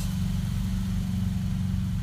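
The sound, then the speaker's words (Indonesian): A motorcycle engine rumbles steadily and low throughout outdoors, holding a constant loudness without a clear approach or fade, with no voices over it. “dan ini ada motor lagi kayaknya ini kita natural aja santuy ya kan”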